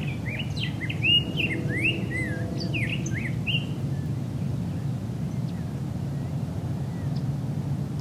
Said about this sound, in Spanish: aquí en el cerro con el canto de los pájaros haciéndose presente.